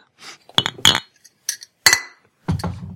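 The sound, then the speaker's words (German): Several bright glassy clinks, a bottle knocking against a glass in a toast, with a few quick taps in irregular bursts, fairly loud, no talking. “Haust du auch Flasche und Glas zusammen?”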